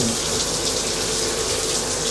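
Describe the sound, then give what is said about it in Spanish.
Cold water pours steadily from a tap or shower, a loud, continuous hiss and splash that stays even from start to finish, with no voices. “Mierda, qué necesidad una agua tan fría.”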